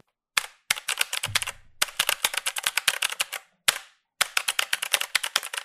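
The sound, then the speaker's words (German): Rapid, sharp clicking of the mechanical switches of a Razer BlackWidow V3 Pro keyboard, typed in quick bursts with brief pauses between them, crisp with no one talking. “Besonders in Verbindung mit den mechanischen Switches ist das einfach nur ein geiles Spielgefühl. Ich meine, hört euch das mal an.”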